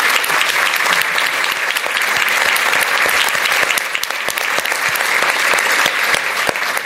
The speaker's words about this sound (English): I know we're running a few minutes behind, but um, I feel like they need a much more rousing round of applause because this is.